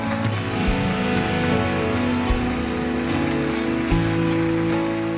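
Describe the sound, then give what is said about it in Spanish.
A church audience stands and applauds loudly for Christ Jesus, a steady, dense wash of clapping that holds for the whole stretch, with sustained music playing underneath. “Póngase de pie, denle un aplauso fuerte a Cristo Jesús.”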